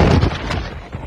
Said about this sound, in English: that noise was just them driving the car off the road a bit. That's all.